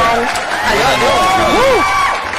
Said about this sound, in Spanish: Mira, toda esta gente se está aplaudiendo.